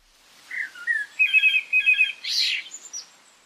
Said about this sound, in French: le moqueur s'inspire des sons qu'il entend autour de lui et les incorpore à ses propres créations.